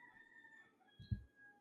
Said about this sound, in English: The roosters are going to get louder, and I don't want that to be in your ear.